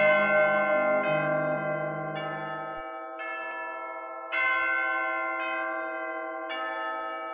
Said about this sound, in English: For many churches, the bells calling the faithful to services or weddings or funerals is just a recording.